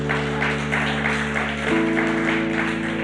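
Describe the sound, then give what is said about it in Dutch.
A large crowd applauds the teams who serve every Sunday in a dense, steady wash of clapping that fills the whole clip, with a sustained keyboard or music drone underneath that shifts chord partway through. “Laat al die teams een ongelooflijk groot applaus geven.”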